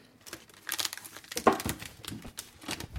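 Crinkling of a plastic marzipan package being opened, with irregular crackly bursts and a sharper tearing rustle partway through, and no voices.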